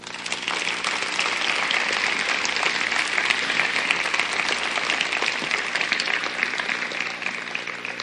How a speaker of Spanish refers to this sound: Dale un aplauso al Señor.